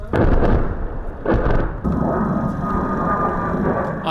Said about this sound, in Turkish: Azerbaycan, Ermenistan ordusunun Cebrail kenti çevresine ve Araz Nehri boyunca kurtarılan köylere top ve havan ateşi açtığını açıkladı.